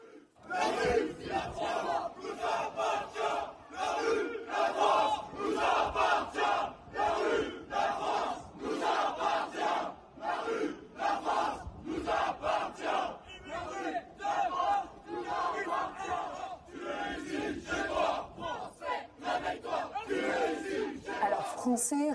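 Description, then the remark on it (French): A large crowd of far-right demonstrators in Annecy, France, chants slogans such as "réveille-toi, tu es ici chez toi" in loud, rhythmic unison, voices rising and falling together in repeated bursts that fill the whole scene. “On a aussi entendu terroristes à mort, immigrés dehors, des manifestations comme celle-ci.”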